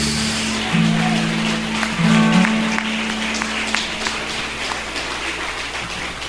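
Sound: audience applauding loudly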